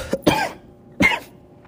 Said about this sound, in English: To cough up a fucking lung.